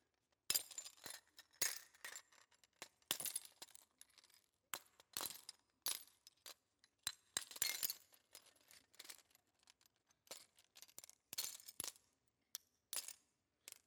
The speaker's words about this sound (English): Sorry, I forgot y'all were here. Just breaking glass down here. This is a good time. This is stress relieving for me.